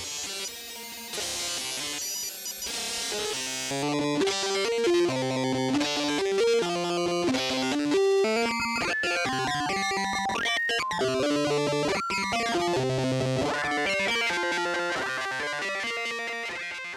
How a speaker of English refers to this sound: Now the box output from Anna just was put into the even input of bang. And then I just put the VCA into the chunks input of uh, bang. And now I'm going to tour through all the wave banks of uh, the Bang Oscillator.